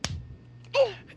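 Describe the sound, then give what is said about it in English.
A voice mimics the cartoonish punch sound effect of a TV show: a sharp smack-like burst followed by a short, bending vocal whoop, quick, with no other talking. “That's the same kind of show where when he punches someone, it sounds like this.”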